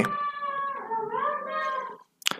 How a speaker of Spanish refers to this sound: ¿tú estás cuidando a perros o a niños, weón? Están ladrando ahí.